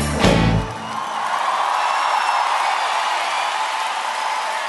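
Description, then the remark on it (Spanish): Audience applause with cheering: a loud opening burst, then a steady, dense wash of clapping and scattered whoops that holds at an even level to the end, with no talking. “Quiero compartir este aplauso de ustedes con la Versuit”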